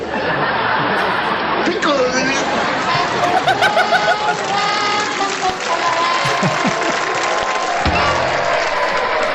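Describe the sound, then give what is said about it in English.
A crowd applauds the YouTube channel Power Tie loudly and steadily the whole time, mixed with scattered laughter, whoops and cheering voices rising over the dense clapping. “so round of applause, round of applause for the YouTube channel Power Tie on what I assume is way too many hours put into that.”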